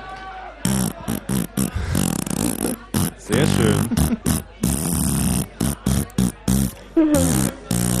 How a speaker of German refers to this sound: Ich kann mal ähm, ganz kurz auf der Tuba spielen.